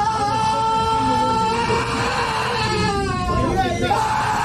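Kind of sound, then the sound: human body sound, man screaming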